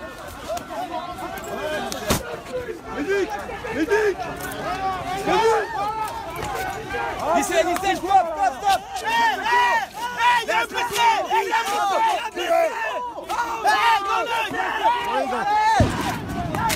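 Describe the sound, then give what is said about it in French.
A chaotic protest crowd at Place de la Bastille, filmed live, roars and shouts continuously, with many overlapping voices yelling and a sharp bang cutting through near the start and another near the end. “qui filme en direct Place de la Bastille quand il va perdre son œil”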